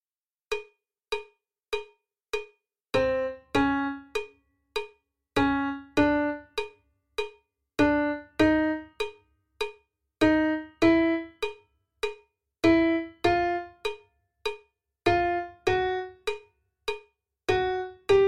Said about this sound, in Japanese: ファミレドドシラソラシド次はこんなフレーズです。まず聞いてみましょう。